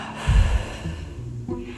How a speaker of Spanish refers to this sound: Inhala. Exhala. La respiración de cuatro tiempos que me enseñó mi mamá. 1, 2, 3, 4. 1, 2, tres, cuatro.